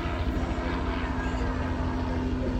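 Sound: helicopters flying low overhead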